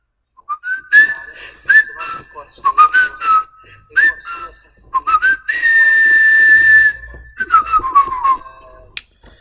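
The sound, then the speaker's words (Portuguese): A person whistles a lively melody, an earlier intro tune, with quick pitched phrases, short pauses between them and one long sustained note partway through. “eu adoro assobiar e a minha mãe nunca me deixa assobiar à noite”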